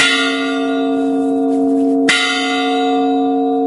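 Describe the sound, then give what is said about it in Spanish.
A deep church bell tolls a death knell slowly, its rich ringing hum hanging in the air before a second loud strike rings out and fades, with no voices present. “Esta mujer no puede ocultar las lágrimas cuando, 50 años después, las mismas campanas bajo las que se refugió la noche en la que perdió a su padre y sus hermanos volvieron a tocar a muerto.”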